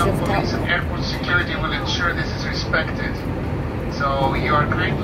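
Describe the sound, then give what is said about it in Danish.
A steady, loud airplane cabin drone in first class on a flight to Copenhagen fills the whole stretch, a dense low roar that never lets up, with a person talking over it throughout. “Nu så sidder vi i vores andet fly, og vi glæder os så meget til at lande i Københavns”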